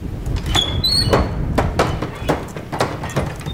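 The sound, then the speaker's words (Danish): A gust of wind forces peeling swinging saloon doors open in a bar. A high, squealing hinge creaks, then the doors bang repeatedly against the wall in a loose, uneven series of knocks over a steady low rumble of wind. “Et vindstød tvinger de afskallede salondør op, så de hamrer ind i væggen, og med et bryder den kolde tavshed, der ellers har spredt sig i rummet.”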